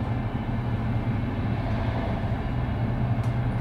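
A steady, loud low rumble fills the inside of a moving train carriage, with a constant droning hum and no break or change in level.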